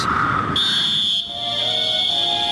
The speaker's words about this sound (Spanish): El pitazo del referí. Eso es la música.